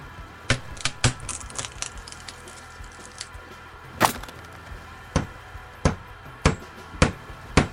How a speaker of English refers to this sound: I heard him knocking away at something in the hold